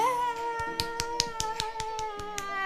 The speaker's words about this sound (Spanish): Así que aplausos para Lucía.